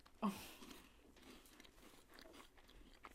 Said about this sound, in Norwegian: Du tygger fortsatt.